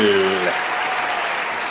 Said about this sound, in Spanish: Claro que sí, un fuerte aplauso a todas estas agrupaciones y más, y más, y más